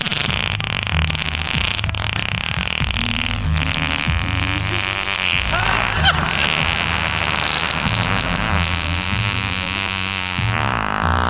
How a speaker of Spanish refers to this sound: ¿Pero por qué te echas pedos?